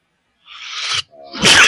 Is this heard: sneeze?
yes